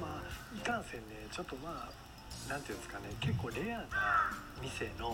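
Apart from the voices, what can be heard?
crow cawing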